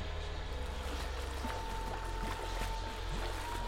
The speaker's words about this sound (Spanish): No había agua por ningún lado, pero podía jurar que escuchaba a alguien chapotear.